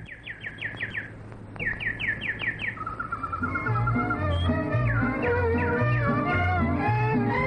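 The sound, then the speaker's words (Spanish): Small yellow migratory songbirds that come from Canada chirp in two quick, bright bursts of about five high notes each, clear, before a melodic music passage swells in and carries on to the end. “Me impresionan más estos pajarillos amarillos tan sabios, tan atrevidos, tan valientes. Al verlos, nadie diría que vienen desde el Canadá.”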